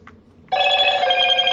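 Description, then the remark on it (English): A phone alarm signalling the character popularity poll results suddenly starts ringing, a loud, steady electronic tone with bright layered harmonics that continues without pause after a brief quiet moment. “thank you phone so that signals the character popularity poll results for Actage was did the act, did the Actage alarm go off?”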